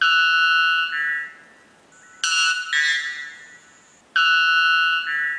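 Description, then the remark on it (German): A male white bellbird of the Amazon, the world's loudest bird at 125 decibels, gives three very loud, metallic, ringing calls, each a long honking tone with a two-part shape, separated by brief pauses. No one speaks. “Also wir merken uns, der männliche Zapfenglöckner ist der lauteste Vogel der Welt.”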